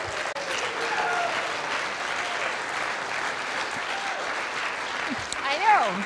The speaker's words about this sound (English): You're clapping for yourselves. That's amazing.